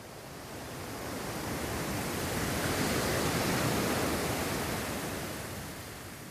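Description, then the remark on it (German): A broad, steady wash of surf swells up and slowly recedes, like a single wave rolling in and breaking on the shore, heard alone without any voices. “Nehme dich als Beobachterin wahr. Als Beobachter der Wellen.”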